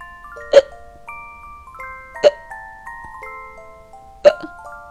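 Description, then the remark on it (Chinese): Three sharp hiccups about two seconds apart, after gulping down chocolate too quickly, each a sudden loud pop with a faint ringing tail, and quiet in between. No one speaks. “我开始不停地打嗝”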